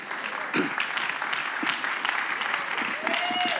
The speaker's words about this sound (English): Clap your hands and tell the Lord, thank you.